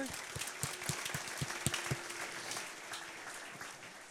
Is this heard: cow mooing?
no